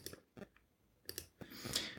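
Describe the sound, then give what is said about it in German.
Several quiet computer mouse clicks, some in quick pairs, spaced out with short pauses as someone clicks through a pre-order list, followed by a brief stretch of soft scrolling or rustling noise; no one speaks. “Ich klicke mich mal noch so gerade so ein bisschen durch meine, ähm, durch meine Pre-Order-Liste, was da noch so drin steht und ähm, guck dann mal, was ich jetzt noch erwähnen möchte auf die Schnelle.”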